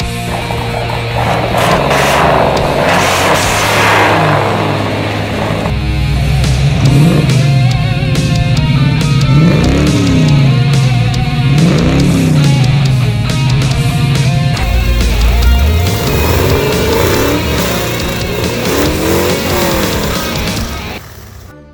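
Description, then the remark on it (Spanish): A car engine revs loudly and steadily for about twenty seconds, its pitch rising and falling in repeated surges, with a harsh roar throughout and no voices. “Sí sonaría un auto real.”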